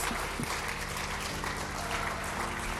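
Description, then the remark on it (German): Sustained audience applause after a prayer, a dense, steady wash of many hands clapping at a constant loudness throughout, with no voices standing out above it. “Wir geben euch einen heftigen Applaus.”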